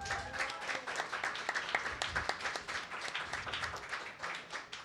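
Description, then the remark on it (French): A crowd at a zero-waste pub on Saint-Hubert applauds the servers, dense overlapping claps forming a sustained rattling wash at an even loudness for about five seconds, with no voices standing out. “Un une bonne main d'applaudissement une dernière fois pour eux autres.”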